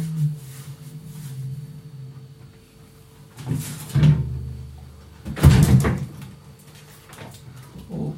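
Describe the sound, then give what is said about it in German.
A refrigerator door is pulled open to look for olives, with a soft clunk followed a moment later by a louder rattling thud, over a steady low hum and no talking. “Muss ich mal gucken in meinen Kühlschrank.”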